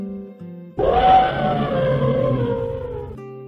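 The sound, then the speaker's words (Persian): One loud, drawn-out elephant trumpet bursts in suddenly, a harsh, brassy blare held for over two seconds before cutting off, with faint low tones before and after it. “آقا فیله شیپوری کشید و گفت”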